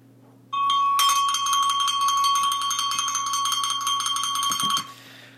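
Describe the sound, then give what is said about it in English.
A bell, rung to introduce a basketball score update, rings rapidly and continuously for about four seconds, loud, with bright metallic overtones, then stops abruptly. No one speaks. “So, um, we're gonna ring the bell a little bit.”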